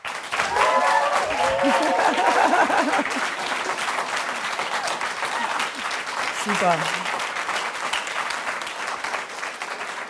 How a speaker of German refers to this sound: Vielen Dank für diesen tollen Applaus.